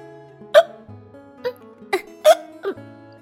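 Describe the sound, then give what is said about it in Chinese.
Five sharp hiccups of a little lamb warming by a stove, in quick, slightly uneven succession, each a short breathy catch with a squeaky edge, over a soft, steady musical background. “小羊羔忽然开始打嗝了。”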